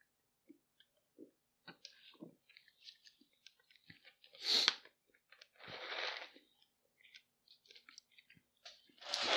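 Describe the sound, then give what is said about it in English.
Someone sips a Coke: scattered small clicks and handling noises, a sharp burst, then a longer airy slurp, with one more burst at the end. No one talks. “Hold on a minute while I get a sip off my Coke again.”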